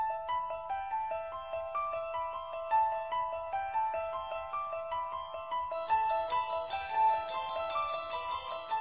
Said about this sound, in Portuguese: Tomar no cu aquela porra daquele telefone do caralho.